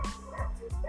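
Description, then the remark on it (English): Several sharp dog barks ring out in quick succession, echoing, from dogs outside on the street rather than in the house, with no voices over them. “I don't know if you can hear the, the dogs the dogs barking, but it's not in my house.”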